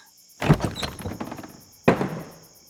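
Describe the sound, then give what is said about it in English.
A pair of doors in a planetarium dome is tried, rattled and jostled with a cluster of clunks and knocks, then after a short pause a single solid thunk as it swings open, unlocked. No one speaks. “that pair of doors looks awfully plain. I'm gonna give it a try.”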